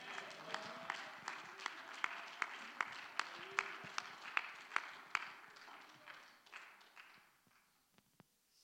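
A church audience claps praise to the Lord in a steady, rhythmic beat of sharp hand claps as the preacher comes forward, with scattered voices underneath, before the clapping thins out and fades near the end.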